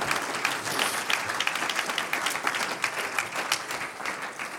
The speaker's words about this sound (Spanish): Un aplauso al que vive.